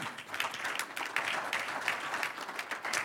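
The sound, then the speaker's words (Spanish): Steady applause to the Lord during a sermon, a dense rattle of many hands clapping at once that holds an even level for the whole few seconds, with no voices standing out. “Un aplauso al Señor.”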